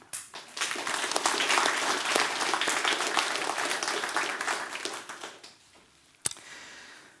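An audience applauds steadily for about five seconds as extra thanks to the person who handled the sound, a dense wash of many hands clapping that swells quickly and then fades out, with one sharp louder clap near the end.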